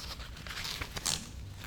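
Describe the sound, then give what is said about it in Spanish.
Soft crinkling and rustling of the pages of a boss-style paper notepad being handled, with a few brief sharper flicks and crackles over a low background hum, and no speech. “Miren acá mi blog de, blog de jefe, la gente que está ahí.”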